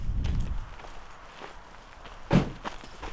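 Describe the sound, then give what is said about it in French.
Steady footsteps of someone walking on a hard road surface, each step a crisp scuff about every half second, with one louder heavier step partway through and no voices. “En marchant, là, je me rappelle quand euh, j'avais commencé à m'intéresser à Compostelle.”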